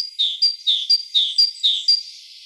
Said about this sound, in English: Urban songs are also faster, probably so they can be repeated more often let's listen to a forest bird. And now it's City Cousin. Once again, the forest bird.